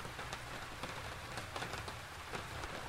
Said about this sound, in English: He paced with his shoulders hunched against the chill of the rain.